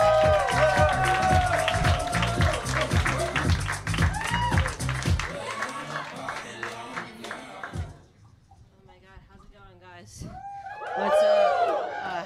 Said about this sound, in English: We love her so much. You're in for a treat. Start clapping right now. Big, big, big, big.